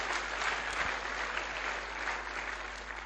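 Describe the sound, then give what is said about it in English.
An audience applauds mothers of teenagers, a dense wash of many hands clapping at an even, sustained level for the whole stretch, with no voices standing out. “Oh, come on, give them a special clap.”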